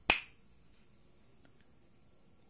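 A single crisp finger snap with a sharp, bright attack that decays almost immediately, followed by quiet with only faint background hiss. No one speaks.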